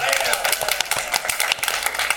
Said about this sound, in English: Slow clap into a crescendo. Into a crescendo. Wow, thank you.